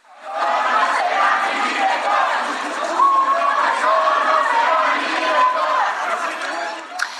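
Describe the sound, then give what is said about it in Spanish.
A large crowd of students from the CIDE student assembly, protesting at CONACIT in Mexico, shouts the rhythmic chant "un opresor no será mi director" in unison, loud and sustained for several seconds, with many voices blending into a dense, steady roar. “Asamblea Estudiantil del CIDE se manifestó por el desaseo en el proceso de designación y por la gestión de Romero acudieron hasta el CONACIT donde despacha a Álvarez Bulla al grito de un opresor no será mi director.”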